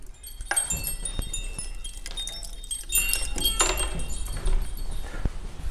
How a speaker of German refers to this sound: Also da haben wir einmal ein Vogelhäuschen, das mhm. klingt. Das macht Sound. Wir gehen mal hin und hören uns mal an, was äh, dieses Vogelhäuschen